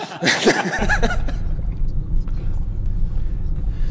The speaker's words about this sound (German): wir sind jetzt plötzlich in einem Bus und fahren quer durch Obergrafen.